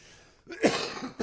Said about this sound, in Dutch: Sorry, eventjes een uh, kuchje. He, verslik me in een slokje water.